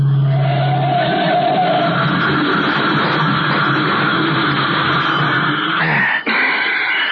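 A loud, sustained roar of a car engine with screeching tyres grinds on for several seconds as the car skids on a curve, then a sudden harsh jolt and clatter near the end as it crashes.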